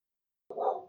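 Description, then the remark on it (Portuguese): A single short dog bark, mid-pitched and somewhat muffled, sounding in the background after a moment of silence, with no one talking over it. “É, nesse momento aqui tem um cachorro ao fundo latino, então esse é um podcast uhum.”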